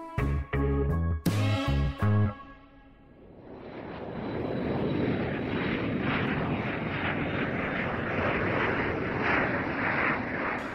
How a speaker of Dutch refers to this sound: Een eh, opstijgend vliegtuig eh, van mensen die misschien fijn op vakantie gaan de komende weken of zo.